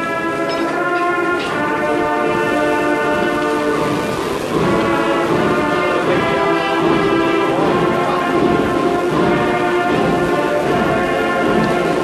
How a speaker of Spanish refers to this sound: suena la marcha en el interior de la iglesia de Santiago.